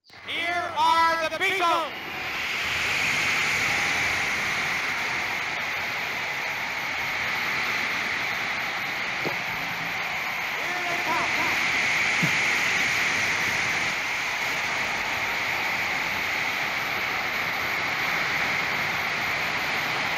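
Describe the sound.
A live stadium rock concert recording at Shea Stadium in New York, swamped by a huge, continuous roar of screaming crowd noise. A brief burst of voice or instrument at the start, then the dense wall of sound holds steady.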